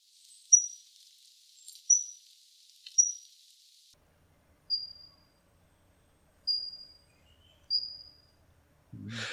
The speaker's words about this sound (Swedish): den var ju väldigt djup i tonen. Den låg ju på 4,5, eller ja, 4500 eh, hertz. Så att den ligger liksom i nedre delen. Det är en av de mörkaste Sakalinsångarna.